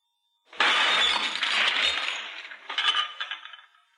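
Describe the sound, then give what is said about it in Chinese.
Glass smashes with a sudden bright crash, followed by a scatter of tinkling shards and a second burst of clinking fragments that fades out. The glass was broken by accident, not on purpose. No voices are heard. “是故意砸的？”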